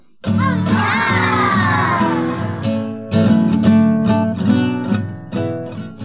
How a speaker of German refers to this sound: das Coole finde ich die äh, Kinderstimmen die Kinderstimmen, die da so, ah und oh